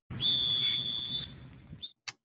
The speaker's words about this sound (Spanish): Muñecos, ponme ahí el, sonido del silbato.